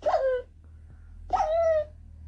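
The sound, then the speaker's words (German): A dog whimpers twice when struck with a sword: two short, high, whining yelps, each sliding downward in pitch, separated by a brief pause over a faint low hum. “Okay, ich muss einen Hund schlagen.”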